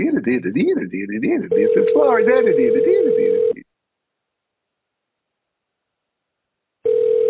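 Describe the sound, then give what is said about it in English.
A steady electronic ringback tone sounds in bursts of about two seconds, with a long silent gap before the next ring, while waiting for someone to pick up after a phone menu. A person talks over the first ring. “Pick up the phone.”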